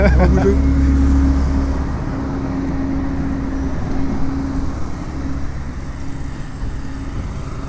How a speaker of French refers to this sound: ce qu'on entend, c'est le compresseur euh, qui permet de produire de l'électricité pour nos collègues qui sont dans la cave.